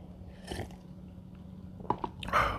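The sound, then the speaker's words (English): Quiet mouth noises of someone sipping hot tea: a soft slurp, a couple of small clicks, then a longer airy sip and swallow, with no talking. “Sorry about that. I had to take a sip of my tea.”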